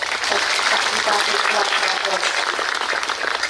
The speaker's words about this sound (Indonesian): tepuk tangan dulu dong